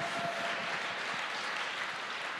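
Steady applause from an audience giving a round of applause for Jesus, a dense continuous wash of many hands clapping at once with no talking over it.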